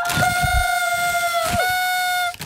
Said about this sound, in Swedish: Kom igen Alma, tuta!